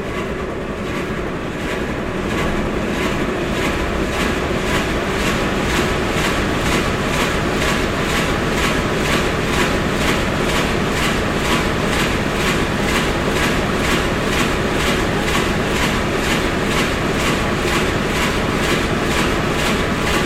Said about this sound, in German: Bei unserem Motor handelt es sich um einen Viertakt-Dieselmotor VMA 266. Es ist ein Achtzylinder mit einer Nenndrehzahl von 250 Umdrehungen pro Minute, leistet dabei 1000 PS und verbraucht in der Stunde 75 Liter Dieselkraftstoff im Teillastbetrieb.